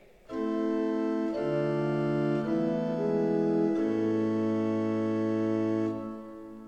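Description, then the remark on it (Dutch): The choir organ in Gouda plays sustained chords on a principal (Prestant 8) stop with the Octaaf 4 added, giving a brighter, fuller tone an octave higher. The notes shift a few times and the sound is steady and fairly loud, with no talking. “Dan komt er een octaaf hoger bij.”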